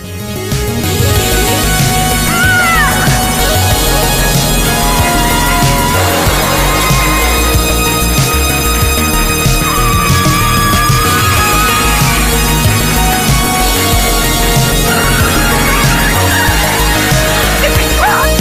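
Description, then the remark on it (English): A loud, dense electronic song packed with sampled Sega video game sound effects, including from Golden Axe: chirpy pitch sweeps, blips and yelping bursts layered over a steady pounding beat and bass, with no talking. “Uh, this is off their EP uh, …, and it uses a lot of um, video game sounds in it from um, from some Sega games.”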